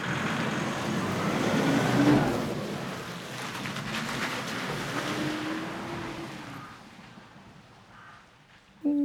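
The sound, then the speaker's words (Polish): A car engine rumbles and pulls away as the car drives out of a garage after its battery was connected and engine started, heading east, its steady motor hum and road noise slowly fading. No one speaks. “Auto, auto wyjeżdża z naszego garażu, no i generalnie będzie jechało już na wschód.”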